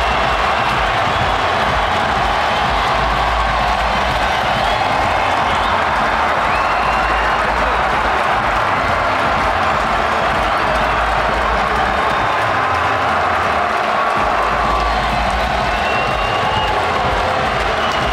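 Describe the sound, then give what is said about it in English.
A football crowd roars and cheers after Eddie Nketiah scores a goal for Arsenal, a loud, steady wall of mass voices and clapping that holds for the full stretch with no clear speech on top. “The crowd are going wild for Eddie.”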